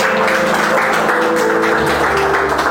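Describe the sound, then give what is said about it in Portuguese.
An audience claps for the Lord together in a dense, steady burst of applause that holds at an even loudness throughout, with a faint sustained tone humming underneath and no voices. “Você pode aplaudir o Senhor neste momento?”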